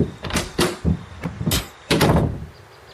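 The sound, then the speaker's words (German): A door is opened with a series of clicks and rattles as a man leaves, then pulled shut with a solid thud near the end; no voices accompany it. “Nein, nein, nein, ich finde schon allein zur Tür.”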